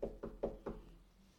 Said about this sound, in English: He's not going to force himself on you. He's going to knock.